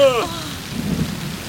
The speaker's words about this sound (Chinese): 太好了！ 谢谢下雨了，下雨了！ 老天啊！